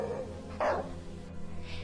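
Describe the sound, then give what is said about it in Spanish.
A single sharp bark from a rabid dog on the Orello bridge in Cangas bursts out over a low, rumbling background, followed by softer, tense canine noises fading into the mix. “en viernes, como en viernes también fuera mordida por un perro rabioso al pasar por el puente del Orello.”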